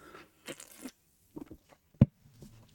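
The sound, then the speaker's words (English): A beer can being cracked open by a tired father having his first beer of the week: a few short crinkling, scraping handling noises, then one sharp, loud pop of the tab with a brief fizz, and no voices. “But first, the sound of an exhausted 43 year old father of three cracking open his first beer of the week.”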